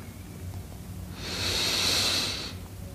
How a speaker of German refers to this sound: Wir nehmen den ersten tiefen Atemzug und atmen ein.